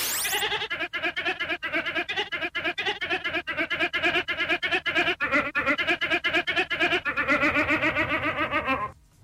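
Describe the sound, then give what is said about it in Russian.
A ram bleats in a long run of rapid, pulsing, wavering calls, loud, with a rising, almost sung pitch pattern that sounds like a tune, ending abruptly after about nine seconds. “Песня стопудово несложная, поэтому давай послушаем звук. Давайте. Ну, вот такой. Баран, получается.”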